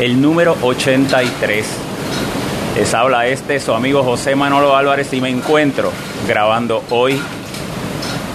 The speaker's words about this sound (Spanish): miércoles 20 de septiembre del año 2017 y lo que están escuchando es el paso del huracán María por Puerto Rico. Son cerca de las 7 de la mañana y están escuchando la furia de un huracán que hasta justo hace unas horas era categoría 5